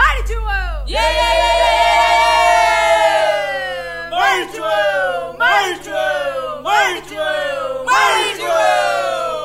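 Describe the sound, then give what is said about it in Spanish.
Many voices shout together in unison at a plurinational gathering of a network of popular educators with the Mapuche people, chanting "Marichi diez veces venceremos", opening with one long sustained cry followed by a series of short, rhythmic chanted bursts, loud and forceful. “Vamos a seguir compartiendo momentos del encuentro plurinacional de la red de educadores y educadoras populares junto al pueblo mapuche gritamos Marichi diez veces venceremos.”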